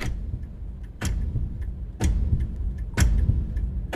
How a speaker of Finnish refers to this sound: Taustalta puuttuu vain musiikki ja muut osallistujat, mutta tässä kellon tikityksen täyttämässä sterillisessä huoneessa olisin ottanut nekin.